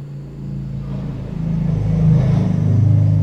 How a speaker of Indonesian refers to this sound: tadi ada motor kan saya jeda sejenak itu supra supra X